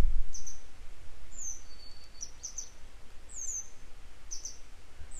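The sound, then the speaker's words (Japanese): Short, high, sharp chirps from a grey wagtail perched on a wire repeat in scattered pairs and clusters over steady low background noise, with no one speaking. “家の中にいる僕をこう、から見えるところの近くのね、配線に止まって、なんかぴよぴよ泣いてるんで、僕に助けてほしいってことなのかなと僕出て”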